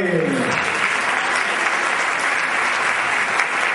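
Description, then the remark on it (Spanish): A family claps steadily and continuously, a dense, even patter of applause holding at a constant loudness throughout, with a brief low murmur of voices at the very start. “Está a toda la familia ahí aplaudiendo.”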